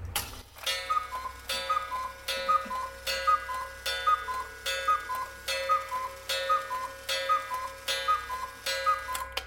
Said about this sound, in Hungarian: Igen, nagyon szép hangja van, ez egy eredeti Schwarzwaldi, tehát ilyen fekete erdei kakukóra, nem mai kiadás, tehát tényleg úgy régebről van, és nagyon szép